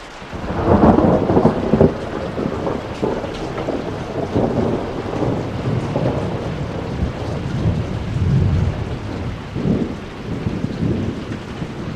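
A thunderstorm with steady heavy rain, low rolling rumbles of thunder swelling and fading throughout, and gusty wind buffeting the microphone, with no voices.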